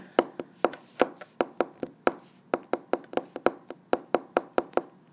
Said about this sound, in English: Sorry, I like typing uh, to a beat.